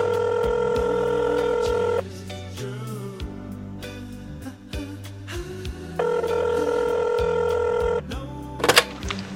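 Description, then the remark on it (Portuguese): A phone call to someone in São Paulo rings out with two long, steady tones about four seconds apart, with faint clicks between them, over a low, continuous musical background. “Produção, dá para conectar aí com, com o telefone, por favor?”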